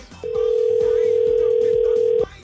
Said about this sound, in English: Right, phone ringing. Let's see. Let's see if we get her.